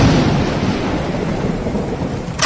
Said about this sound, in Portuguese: As nuvens que já eram pesadas ficam ainda mais negras. A chuva cai de forma ainda mais torrencial. Um relâmpago cai muito perto da ilha. Logo em seguida, o trovão ensurdecedor e o próximo relâmpago cai na própria ilha.